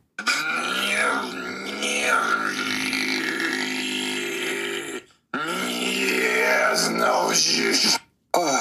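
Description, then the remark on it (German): A deep, gravelly throat bass drones in two long sustained phrases with a brief gap between, its rough rumbling tone sliding and warbling in pitch, loud with no talking. “Wer möchte nicht davon geweckt werden? Von der Throat Bass.”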